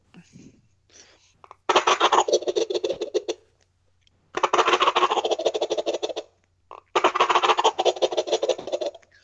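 Three loud, rapid rattling gobbles from a shaken Flextone Thunder Gobble turkey call, each burst lasting a couple of seconds with short silent gaps between them; no one speaks.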